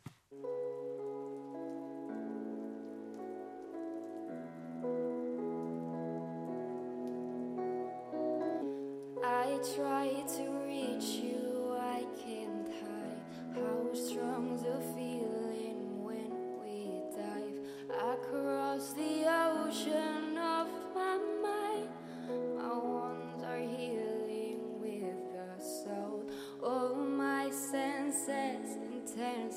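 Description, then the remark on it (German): A recorded pop song plays at steady volume, opening with soft sustained keyboard-like chords before drums and a fuller arrangement kick in around ten seconds; no one talks over it. “Nee, es ist auch schon auch mein eigener, aber das sind so die, die neuesten Trends, äh, die ich jetzt hier zum Besten gebe quasi.”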